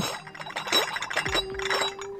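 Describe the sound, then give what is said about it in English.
Porcelain cups and saucers of a tea set rattle and clink together on a tray in quick, uneven bursts, fairly loud, with a lingering ring from one piece, carefully rattled by a sound effects maker to mimic a waiter approaching a table with a full tray. No one speaks. “carefully rattling tea sets to create the sounds you would hear if a waiter were approaching your table with a full tray.”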